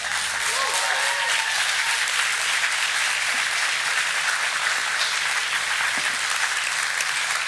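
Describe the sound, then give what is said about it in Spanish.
Sustained audience applause for the speaker's mother fills the whole stretch, a dense steady wash of many hands clapping, with a brief whoop or cheer near the start. “Los aplausos son para mi santa madre.”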